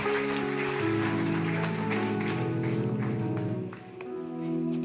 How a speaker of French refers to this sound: Est-ce qu'on peut rendre gloire à son saint nom en applaudissant Jésus ce matin dans ce lieu